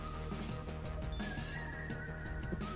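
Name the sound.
phone alert sound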